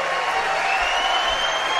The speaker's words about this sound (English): That might have been him whistling right there. ….